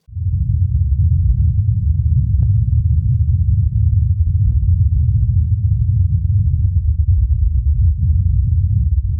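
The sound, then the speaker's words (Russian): A faint, low drone of the Mars helicopter's rotor blades as it takes off and flies, heard from a distance, buried in a steady, muffled rumble that runs unbroken throughout, with a few soft ticks scattered across it and no voices. “Но даже на таком расстоянии можно услышать слабый гул лопастей вертолета, когда тот взлетает и находится в полете.”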